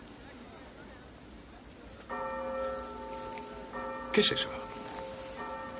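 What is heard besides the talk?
bell ringing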